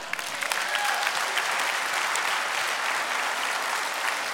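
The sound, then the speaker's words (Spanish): An audience claps steadily, a dense, sustained wash of many hands applauding at an even level throughout, with no voices standing out above it. “Dale un aplauso, querido.”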